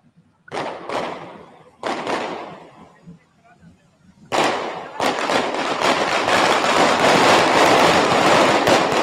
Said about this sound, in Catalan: Doncs ja veieu, la, els elements de foc que també són importants i, de fet, estan fent ara una altra carretillada. Veiem-la i escoltem-la.